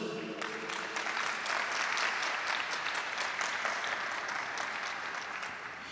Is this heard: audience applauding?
yes